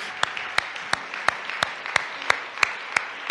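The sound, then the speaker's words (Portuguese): A standing audience applauds for Christ, clapping together in a steady, even rhythm of sharp claps about three per second over a continuous wash of scattered clapping. No one speaks. “E uma vez que estende de pé, dê um aplauso a Cristo, porque uma vez mais Ele merece.”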